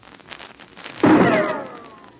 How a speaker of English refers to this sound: Did you hear that rifle shot? It came within inches of Pat Ryan as he stood with the mountain hermit, Nimaru, in the moonlight. Somebody fired the shot from across the snow valley.